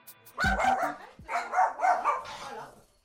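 A small Yorkshire terrier barks and yaps in two quick, high-pitched bursts, its shrill calls run together with a whiny edge, separated by a short pause.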